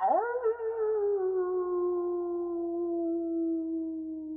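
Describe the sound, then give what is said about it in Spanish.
A wolf howls alone at night, at a quarter past three in the morning, in a single long call that slides up in pitch at the start, then holds a steady, slightly falling mournful note for several seconds. “Eso es un lobo.”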